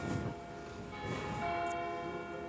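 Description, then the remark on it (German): Church bells of the Predigerkirche in Zurich ring with dense, overlapping metallic tones that hum and sustain, fresh strokes swelling in every second or so over a steady resonant wash. No voices are heard. “Das waren gerade die Glocken der Predigerkirche.”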